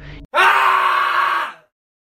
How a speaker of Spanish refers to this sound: Con la desesperación y los nervios a todo lo que daban, aquel guardia explotó en un grito aterrador